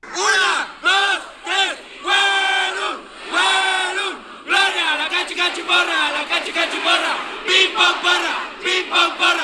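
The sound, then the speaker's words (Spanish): A large crowd shouts the Instituto Politécnico Nacional cheer in unison, chanting "Huelum, Huelum, Gloria, a la cachi cachiporra, pim pom porra, Politécnico, Politécnico, Gloria", voices rising and falling in repeated drawn-out syllables, loud and energetic like a stadium cheer. “yo no sé si en algún punto han escuchado la porra del Instituto Politécnico Nacional”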